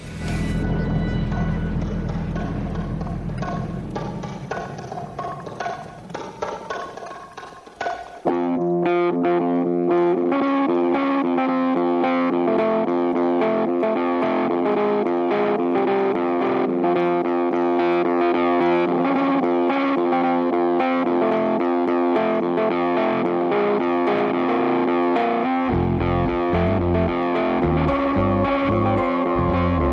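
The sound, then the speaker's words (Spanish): A loud song with heavily processed, distorted instruments. A hazy, effects-laden opening gives way after about eight seconds to a full, dense arrangement with steady pulsing bass. No voices speak over it. “Así que vamos a escuchar un tema que me encanta y que cita a alguien más.”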